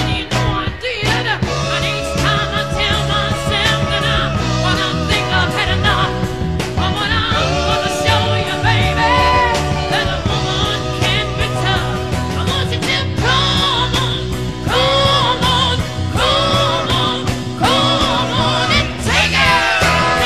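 A rock song plays loud and continuous for the whole stretch, with steady driving drums, dense guitars and a melodic line riding on top, close and full-sounding with no talking.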